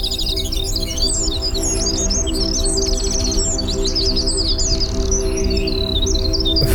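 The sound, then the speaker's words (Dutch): Rapid, high, wren-like warbling and trills, made from a processed human voice, run continuously and fairly loud over a low, steady droning hum. “tot uiteindelijk het eindproduct, dat ik mijn eigen stem heb vervogeld.”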